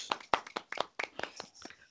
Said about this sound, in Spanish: Pues sí, un aplauso a todos.